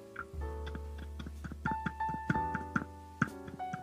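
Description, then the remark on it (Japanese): A series of soft, dull taps of fingers on a microphone in a shock mount, about ten irregular knocks, sounding over quiet background music with sustained tones and no talking. “今、マイク自体をトントン叩いてるんですけど。”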